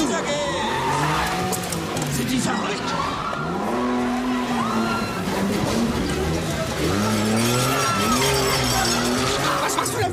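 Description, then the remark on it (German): A car engine revs and whines with rising and falling pitch while tires squeal and skid repeatedly, loud throughout, as a voice briefly speaks over the chaotic driving. “Oh Ups, ich kann übrigens nicht Auto fahren.”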